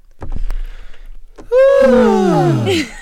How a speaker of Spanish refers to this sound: cuando bostezamos, de hecho lo voy a hacer, pero mm, retirada del, micrófono. ¡uh! ese bostezo de cuando estás solito y te estiras así a tus anchas, así.